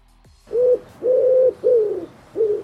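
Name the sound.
dove cooing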